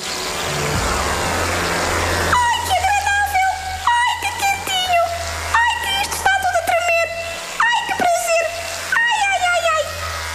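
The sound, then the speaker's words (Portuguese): After a brief rush of hissy, water-like noise, a voice imitates water molecules in food vibrating in a microwave oven, with about six rhythmic bursts of sliding, warbling tones and clicky pops. “Esta parte da explicação é chata, mas talvez seja menos se ouvirmos as moléculas de água a vibrar”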